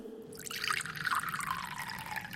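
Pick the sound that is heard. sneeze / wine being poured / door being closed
wine being poured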